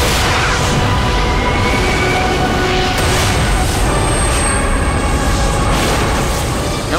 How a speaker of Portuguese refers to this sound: foi uma explosão. Uma explosão envolve reações químicas, mas não havia ainda reações químicas, pois nem elementos químicos haviam ainda.